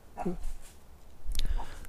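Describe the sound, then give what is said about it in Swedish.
A dog gives a couple of short, high whimpers and a sharp bark out in nature, two brief bursts separated by a pause, moderately loud. “Ja, nu finns det en hund här.”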